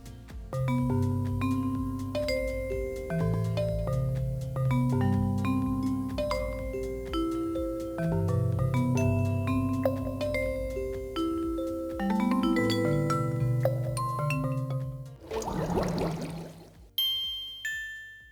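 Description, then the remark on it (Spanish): Synthesized, gamelan-like video game music with layered metallic chime and mallet tones in a steady interlocking rhythm, loud, ending with a brief noisy swell and a few bright plinks. “con este sonido como de gamelán de Indonesia me recuerda a mí mucho esos sonidos, aunque bueno, claro, son sintetizaciones, nunca se puede asegurar claramente”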